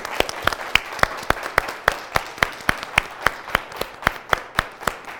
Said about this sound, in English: Give God a hand clap. God bless you.